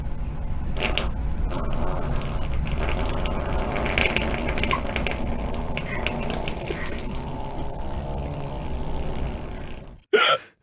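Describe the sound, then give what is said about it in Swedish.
A long, loud recorded fart from the internet, a raspy, sputtering blast that runs steadily for about ten seconds, cuts off abruptly, then gives one brief final burst. No one talks. “Enligt Jonathan, nätets bästa fis.”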